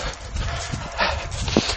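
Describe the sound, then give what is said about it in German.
A dog, held by its owner, gives two short barks about half a second apart against a steady outdoor background hiss with scuffing sounds. “Ich glaube, das ist derselbe Hund, der mich vor ein paar Wochen genau an dieser Stelle angefallen hat und ich ihn wild beschimpft habe.”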